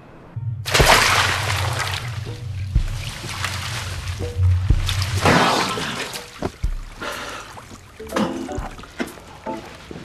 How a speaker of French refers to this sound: on voit … qui met sa gueule dans un évier plein de glace